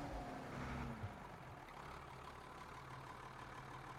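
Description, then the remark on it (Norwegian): A camper van's engine rumbles steadily as it drives fast around, trying to shake off grass and moss, with a brief rising whine at the start before settling into a constant low drone, moderately loud with no voices. “Bilen kjørte fort rundt og prøvde å riste av seg gresset.”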